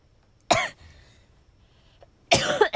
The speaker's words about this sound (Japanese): もう本当に今日咳やばいんだけどどうしたんだろうね初めてこの再開っていうボタンを押したよ一回止めてみたちょっとあまりにも咳がひどいから龍角散を突っ込みました